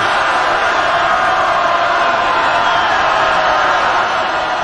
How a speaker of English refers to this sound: I'm told that's the crowd chanting Russia, Russia, Russia on the cue from Vladimir Putin there in Red Square.